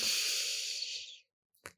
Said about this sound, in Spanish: puedes dirigir tu atención hacia tu respiración, tomar respiraciones conscientes, inhalo consciente el aire que inspiro